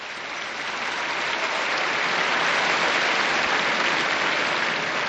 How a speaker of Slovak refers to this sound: Jeden veľký potlesk pre tieto nové blahoslavené.